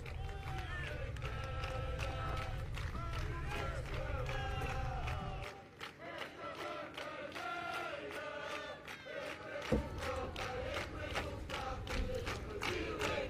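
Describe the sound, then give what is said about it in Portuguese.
A large, lively crowd at the PSD closing rally of the European election campaign in Praça da Batalha, Porto, cheers and chants loudly, with many voices shouting together and bursts of rhythmic clapping, sustained throughout. “Claramente uma plateia muito animada.”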